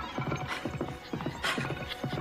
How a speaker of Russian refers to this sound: В тот же миг конь повернул и понесся во весь опор от берега к лесу.